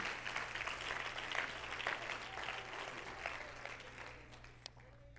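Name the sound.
audience clapping hands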